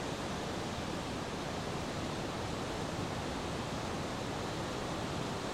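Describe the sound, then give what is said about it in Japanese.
A loud, steady roar of Sogi Falls (Sogi no Taki) in Japan heard from close range, a dense wash of rushing water that fills the whole clip without letting up, with no voices. “はい、では曽木の滝のちょっと近くまで来ました迫力すごいですね今ちょっと近くまで来た音がちょっとすごいかもしれないけどどんな感じかっていうとこんな”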